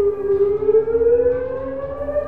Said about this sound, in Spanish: Activación B. Una sirena sonaba. Error, error.